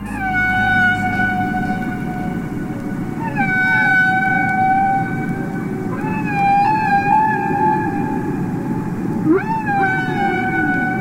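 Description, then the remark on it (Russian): A humpback whale sings long, wavering tonal calls with rich harmonics that rise and fall, several drawn-out moans over a steady low rumbling underwater background, with no voices. “В 1970 году биоакустик Роджер Пейн впервые показал, как красивы, загадочные, а местами немного жутковатые песни горбатых китов.”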